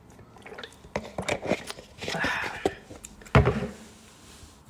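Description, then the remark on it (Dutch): Someone takes a quick sip of water: soft mouth and swallowing noises, light handling sounds, then a sharper knock as the cup or bottle is set down. “Ik neem heel even snel een slokje water.”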